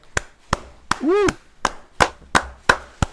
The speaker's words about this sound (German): Kleiner Applaus